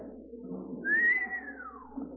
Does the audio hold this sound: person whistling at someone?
yes